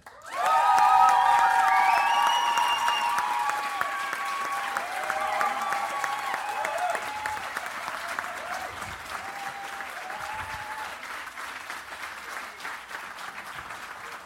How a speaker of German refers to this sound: Das war beeindruckend, äh, dieser Applaus. Ich glaube, das hatten wir noch nie. Alle Slammer waren über 100 Dezibel.